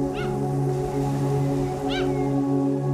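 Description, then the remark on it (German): Two short, high, wavering seagull cries at the end of the day by a long wooden pier at a small seaport, one near the start and one about two seconds later, heard over a steady low droning hum. “Die letzten Schreie der Möwen verhallen mit dem Ende des Tages.”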